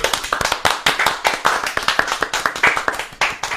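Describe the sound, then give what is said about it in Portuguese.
A crowd at the show Papum claps steadily and loudly to welcome a guest, a dense run of sharp, overlapping hand claps that keeps going without a break, with no talking over it. “Gostei Uhul! das palmas, viu?”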